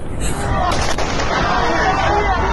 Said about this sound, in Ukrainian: На вас стріляють